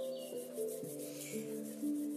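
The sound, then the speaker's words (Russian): Palms rubbing briskly together to warm the hands, a continuous soft swishing friction that lasts about two seconds, with low sustained musical tones playing quietly underneath. “Наши горячие, разогретые ручки мы кладем на грудь и чувствуем, как тепло от наших рук проникает глубоко-глубоко в сердце”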